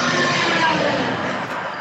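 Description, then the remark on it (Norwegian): A bus rumbles past on a street in Washington, DC, a loud, steady wash of engine and road noise that fills the whole moment without letting up. “Der kom bussen i DC.”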